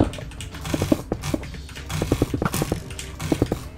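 Rapid bursts of dense mouse drag clicks rattling in quick clusters, separated by brief pauses, with no voices.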